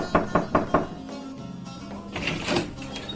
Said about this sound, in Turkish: Nasrettin Hoca'nın kapısı çalınmış, hoca kalkıp açmış ve komşusunu elinde boş bir bardakla görmüş.